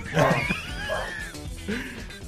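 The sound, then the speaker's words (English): A dog gives three quick, high-pitched yipping barks, fairly loud, each cry rising and falling in pitch with short pauses between. “I'm having a dog problem.”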